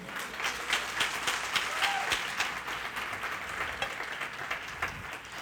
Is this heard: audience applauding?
yes